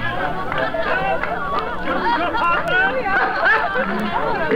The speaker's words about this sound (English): it's my old master, bless his heart, old Fezziwig my master alive again and hosted one of his Christmas parties. Listen to him.